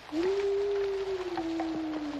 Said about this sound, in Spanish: ¿Qué es eso? Parece un perro.